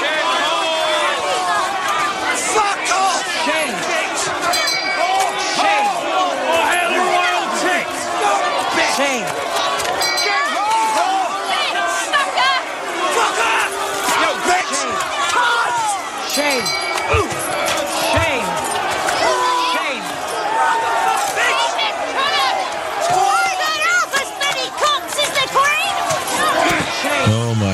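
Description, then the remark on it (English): A large crowd at the Wisconsin state government building roars and shouts together in a loud, continuous wall of voices, chanting the same thing in unison, with scattered thumps and cries rising through it. “It's just, they're shouting the same thing.”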